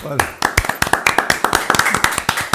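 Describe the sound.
A short burst of applause for a guest from a few people, quick sharp claps in a fairly steady rhythm, with a voice briefly audible at the start.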